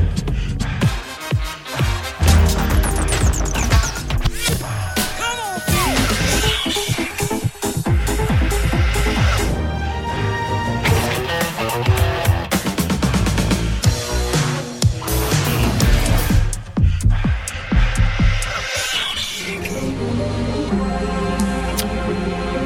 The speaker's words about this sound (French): C'est parti, on envoie le générique.